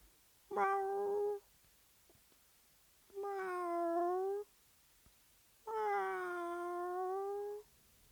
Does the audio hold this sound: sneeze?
no